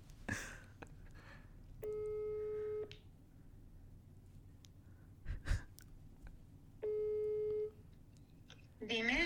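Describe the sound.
The ringing tone of a call placed from a mobile phone repeats twice, each a steady electronic hum lasting about a second, separated by a long pause, with faint breathing and brief voices at the start and end.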